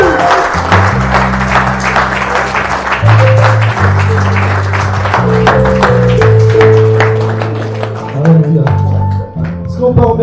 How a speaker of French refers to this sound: Est-ce qu'on peut pousser une acclamation au roi?